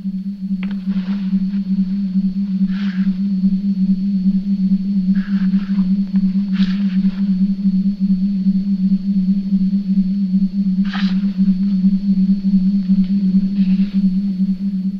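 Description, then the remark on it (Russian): Electronic film-score noises: a loud, unbroken low drone with a thin high whine above it, punctuated by scattered short bursts of hissing, warbling tones. No one speaks. “электронные шумы композитора Джельметти — очевидный образ ее галлюцинаций и панических атак”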